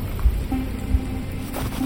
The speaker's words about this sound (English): Only the patter of rain interrupted the long stretch of silence between us.